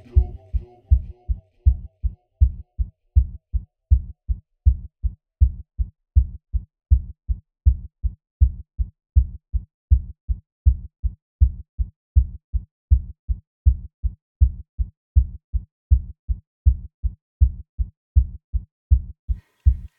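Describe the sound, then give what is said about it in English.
A steady, low heartbeat thumps over and over, each beat a deep lub-dub pulse repeating at an even rhythm, clear with no talking. “That's a beating heart, heart, heart, heart, heart, heart, heart.”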